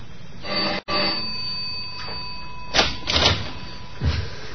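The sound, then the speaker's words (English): The doorbell of a third-floor apartment in Haven Mews, London, rung by police from Scotland Yard, sounds one steady, sustained electric tone for about two seconds, followed by a few dull thumps and shuffling noises, like a door being handled. “It doesn't take long to race upstairs to a third floor apartment, ring the doorbell.”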